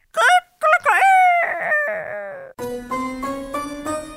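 A rooster crows loudly, a few harsh rising-and-falling bursts, and then a steady tonal, musical sound takes over and carries on to the end.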